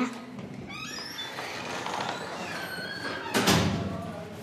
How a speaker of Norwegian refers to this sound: Musikkrommet ligger helt oppe i femte etasje på den store mursteinskolen. Innerst inne i en gang. 87 trappetrinn. Og nå åpner vi døren til musikkrommet.